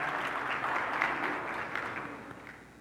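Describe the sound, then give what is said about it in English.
An audience claps steadily for about three seconds, a dense, even patter of many hands that holds at a moderate level and eases slightly toward the end, with no voices over it. “Just wave your hand so people know who you are, so you don't have to clap.”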